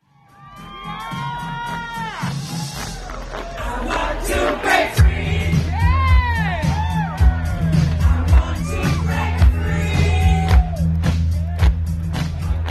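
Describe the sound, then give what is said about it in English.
A crowd of over half a million people cheers and whoops continuously at Denver Pride, with high shouts and yells rising over a dense roar, while a steady low rumble of music or amplified sound joins partway through. “That's a crowd of over half a million people cheering at Denver Pride.”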